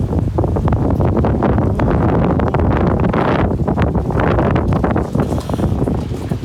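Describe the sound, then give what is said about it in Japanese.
Strong wind roars steadily against the microphone, a dense, buffeting rush with gusty surges and low rumbling, loud throughout with no voices; the wind is picking up and growing stronger. “風がおおお風がちょっと降きてきたよ強くなってきたよ”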